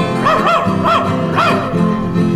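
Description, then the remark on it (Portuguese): A dog barks three or four times in quick succession, loud, each bark a short rising-and-falling yelp over a steady background hum. “Sai cachorro.”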